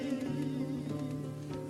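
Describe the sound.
A mosquito buzzes steadily without a break, a thin whining hum holding at an even loudness with slight wavering in pitch.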